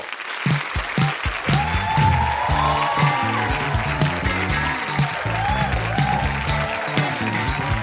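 A crowd applauds steadily for the full stretch as actor and film director Murilo Benício is introduced, a dense, loud wash of clapping with no pauses, while music with a pulsing low beat and melodic lines plays underneath.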